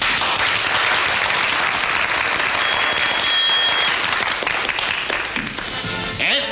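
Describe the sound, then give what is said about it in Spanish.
A steady wash of applause from colleagues, many hands clapping densely and loudly throughout, with a few brief whistles rising above it midway and the clapping thinning slightly at the end. “Muchas gracias, colegas, por esos aplausos que más que para mí corresponden a quien me sirvió de conejillo de indias.”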